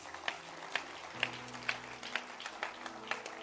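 audience clapping hands

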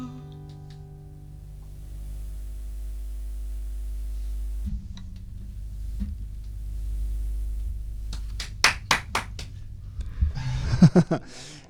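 clapping

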